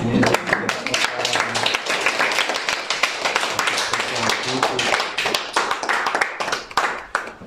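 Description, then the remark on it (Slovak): A crowd applauds steadily and loudly for several seconds, many hands clapping in a dense, continuous patter with faint murmuring voices underneath. “Za obrovského potlesku ľudí.”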